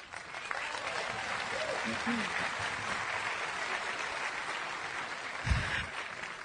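A crowd applauds steadily for several seconds, a dense, even wash of clapping that holds at a fairly constant level with a brief low thump near the end.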